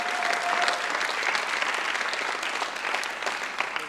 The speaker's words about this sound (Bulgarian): Хайде църква, нека да ръкопляскаме, като че вярваме и казваме, пасторе, ще го направим.